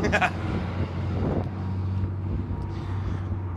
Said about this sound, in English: And the shop's about three quarters of a mile away from my place of business. So forgive the traffic noise and the wind, but I'm out in the I'm out in the wilderness.